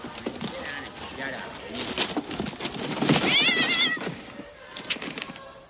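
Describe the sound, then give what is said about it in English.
A cat inside a wrapped box meows several times in short, rising cries, the loudest near the middle, while people talk and murmur in the background of a living room. “This box is meowing.”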